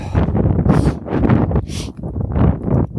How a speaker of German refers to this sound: Jetzt haben wir ein bisschen viel Wind natürlich. Ich laufe wieder auf eine Fläche.